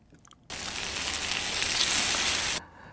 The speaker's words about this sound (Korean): 고기 굽는 소리입니다. 치, 치.